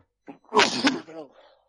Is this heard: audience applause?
no